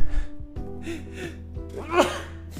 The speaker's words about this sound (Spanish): Voy, voy a estornudar.